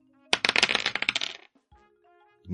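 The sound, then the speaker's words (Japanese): A rapid clatter of dice tumbling and bouncing on a hard surface for about a second, then settling, with a brief voice murmur before and after; a player rolls the die in a board game after sitting out a turn and gets a 2. “一回休みが明けましたので、サイコロを振ります。”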